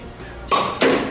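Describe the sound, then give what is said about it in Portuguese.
Two sharp strikes against a glass bottle of dark beer held seam-side up, a fraction of a second apart, each with a brief ringing clink as the bottle is knocked open at its seam. “Então nós vamos colocar o ponto frágil aqui, eh, que é a emenda da garrafa pra cima.”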